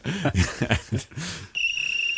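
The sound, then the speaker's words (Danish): A short, shrill referee whistle trills at the end, its pea rattling the tone, after a second or so of rough, bursty noise. The whistle is loud. “vi fløjter den der”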